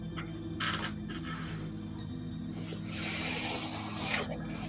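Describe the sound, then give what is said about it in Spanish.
A voice imitates the wind with a breathy, whistling whoosh that swells in two gusts, fading in and out over a steady low mechanical hum. No one speaks. “El último sonido que ha salido de su boca era un silbido simulando el viento.”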